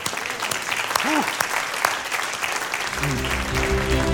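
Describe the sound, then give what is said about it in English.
A Church Alive audience bursts into sustained, dense applause, giving the Lord a hand after a prayer, many hands clapping at once with a few scattered voices calling out, then a sustained organ-like tone swells in under the clapping near the end. “Come on, give the Lord a hand.”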